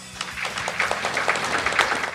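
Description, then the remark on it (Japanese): A short burst of steady applause from a crowd welcoming a New Art Holdings executive onto a stage, many hands clapping together at an even, moderate loudness with no voices heard. “皆様拍手でお迎えください”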